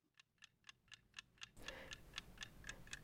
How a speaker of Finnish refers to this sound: Shakki-kilpailussa säännöstellään ajankäyttöä, jotta pelit eivät jatkuisi loputtomiin. kello tikittää kulloinkin sille pelaajalle, joka on siirtovuorossa.